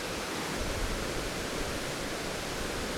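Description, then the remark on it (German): A steady, loud roar of rushing rapids on the Iller river, a dense unbroken hiss of churning water that fills the whole recording without pause. No voices or other sounds rise above it. “Ja, jetzt bin ich ein paar Meter weiter gefahren und da ist die erste Stromschnelle von der Iller. Wird man wahrscheinlich sehr laut im Hintergrund hören.”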